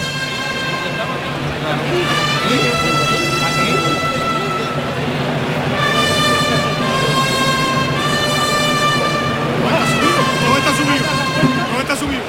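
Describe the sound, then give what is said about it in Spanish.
Bugles blare three sustained, bright fanfare phrases, each swelling then pausing, at a bullring, announcing the release of the first bull as the toril gate opens, over a steady murmur of a large crowd. “Clarines y timbales.”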